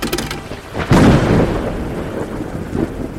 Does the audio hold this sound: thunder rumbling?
yes